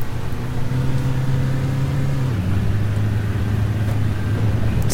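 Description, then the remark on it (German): A bus engine drones steadily from inside the vehicle as the driver runs a red light on a quiet road, its low hum holding a constant pitch before dropping and settling as it shifts and keeps accelerating, with rumbling road noise throughout. “Ich fahre jetzt hier einfach mal über Rot.”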